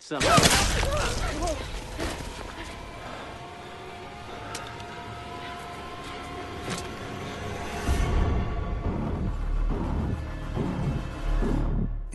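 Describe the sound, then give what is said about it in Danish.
A few sharp gunshot cracks ring out in a TV series scene where a man is shot in the head while telling Carol an anecdote about his brother, one loud blast near the start and fainter reports later, set against tense background sound and some murmured voices. “Og så midt, midt i, Uh, midt, midt i den her anekdote, han skal til at fortælle Carol, så bliver han skudt lige i Der lyder skud, ja.”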